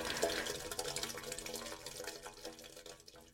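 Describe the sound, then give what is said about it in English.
Steaming hot shower water runs steadily, a dense hiss of spray with small splashes and drips spattering through it, fairly soft and continuous with no voices. “Lewis turns the knob on his shower to steaming hot. He stands in the water for a bit”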